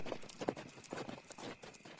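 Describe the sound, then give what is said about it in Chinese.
Horse hooves gallop in a quick, steady clip-clop rhythm, each hoofbeat a sharp thud repeating several times a second at a moderate, even loudness with no voices, as a rider cracks a whip and charges off. “当下马鞭一挥，冲了出去”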